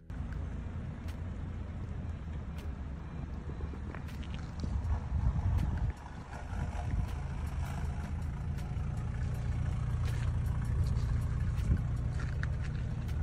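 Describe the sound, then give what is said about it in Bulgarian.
A car engine rumbles steadily from inside a moving vehicle in a played video clip, with a heavy low drone, road and wind noise, scattered small clicks and a brief dip before it picks up again. “Чак, че се би ми е пратил някакъв клип как се издуха с колата.”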